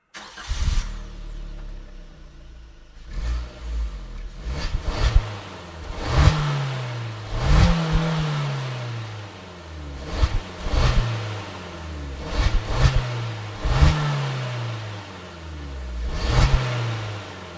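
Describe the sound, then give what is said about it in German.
A Suzuki Jimny engine, with no turbo, turns over and starts, then is revved in a series of short, sharp bursts, each rising and falling back to idle, with no one talking. “heute sprechen wir hier über den Suzuki Jimny”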